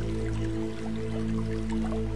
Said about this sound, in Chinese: 你听，远处还有小溪流水的声音。这就像古诗里面的场景：小桥流水人家。